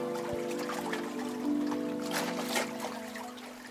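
Stream water trickles softly and continuously, with brief splashy bursts, over a steady, sustained humming tone in the background.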